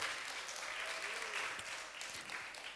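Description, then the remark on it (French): Steady applause from an audience fills the whole stretch, a dense crackle of many hands clapping at once, sustained with a slight dip near the end. “On peut l'applaudir.”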